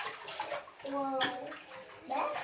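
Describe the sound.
Water splashes around in a bathtub in busy, irregular bursts as a child splashes, about to wet the floor outside the tub, with the child's high voice briefly rising over the sloshing partway through.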